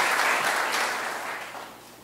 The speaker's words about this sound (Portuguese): Podemos dar uma salva de palmas aí pela palavra de Deus, transformação que ela faz nas vidas.